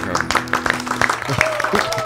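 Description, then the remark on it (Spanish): A short round of applause for a woman being welcomed to the group. Many hands clap in quick, irregular bursts at a steady, moderate loudness, with voices murmuring and calling underneath. “Eso, un aplauso para ella, por favor, todos compañeros, un aplauso para”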